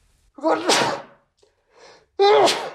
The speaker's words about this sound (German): Ich muss immer niesen, wenn ich diese Dinger mache.